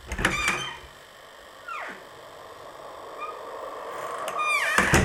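A door, just unlocked with a key, creaks open with a sharp squeal, then after a few seconds of quiet rumble it swings back and thuds shut, fairly loud, with no voices.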